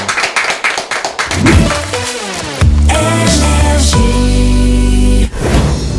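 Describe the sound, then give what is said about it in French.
A quick burst of sharp hand clapping, lasting about a second and a half before giving way to a loud, sustained musical jingle. “On peut applaudir bien sûr ce sujet et on va se retrouver dans quelques instants.”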